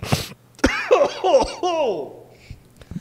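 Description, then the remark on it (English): A sharp, wet snorting sniff that dislodges mucus from the nose down into the throat, followed by throaty, strained vocal noises that sound like hacking laughter and throat clearing, with a faint low hum underneath. “I just freaking sniffed, and a loogie dislodged from my nose and went down my throat.”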